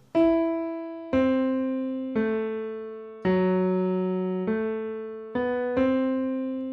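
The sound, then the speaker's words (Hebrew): Alberich's ring motif from the Ring cycle, heard at the start of the next scene in Das Rheingold: a brooding motif of seven sustained low notes played one after another, each entering firmly and slowly fading, forming a slow, menacing phrase with no voices. “אה, אנחנו שומעים את מוטיב הטבעת של אלבריך, נשמע ככה, מאיים כזה.”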